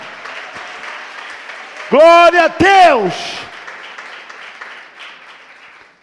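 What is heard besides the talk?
audience applause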